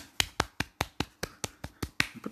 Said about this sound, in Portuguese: Pronto, estas foram as palmas permitidas com o meu orçamento.